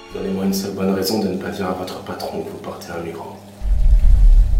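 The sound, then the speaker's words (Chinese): A voice speaks at first, then a maid in a bathroom turns on the tap and water starts running, a loud, steady rushing that continues to the end. “而女佣来到卫生间，就打开了水龙头，也是为了用水流声遮盖人声，不让警察和盯着监听器的老黑听见二人的对话。”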